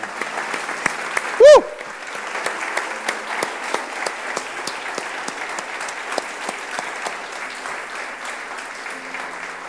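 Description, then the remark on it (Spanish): An audience applauds the Lord steadily, a dense wash of many hands clapping throughout, with a brief loud whoop or cheer rising near the start over the sustained applause. “Podemos dar un aplauso al Señor.”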